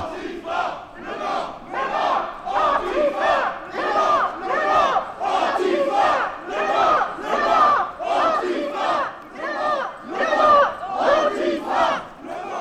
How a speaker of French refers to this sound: Et suivons donc le cortège, qui de fait chante des slogans.